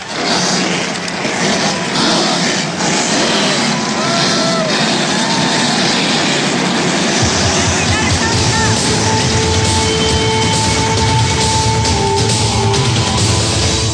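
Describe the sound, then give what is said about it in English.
A dense, loud roar of race car engines starting up and revving at the start of a motorsports race in New England on a clear spring evening, amid constant background crowd noise, with a deep low rumble surging in about halfway through and holding steady. “Drivers, start your engines.”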